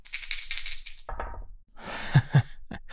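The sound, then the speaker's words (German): Two ten-sided dice, a glowing Cthulhu die for the tens and a blue die for the ones, rattle and clatter, shaken in a hand and then tumbling onto a hard surface with a couple of sharp knocks as they land. No one speaks. “Der ist für die Zehner und dann nehme ich noch einen blauen der ist für die Einer.”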